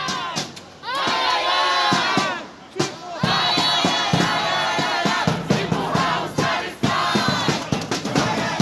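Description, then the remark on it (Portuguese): A large crowd of volunteers shouts and chants together in loud, rhythmic bursts, many voices rising and falling with brief pauses between chants, greeting Environment Minister Ricardo Salles at a meeting of the Federação das Indústrias do Estado de Minas in Belo Horizonte on the 17th. “hoje a gente vai contar da recepção que os voluntários lá de Belo Horizonte fizeram para o Salles no último dia 17, quando o ministro compareceu em uma reunião da Federação das Indústrias do Estado de Minas.”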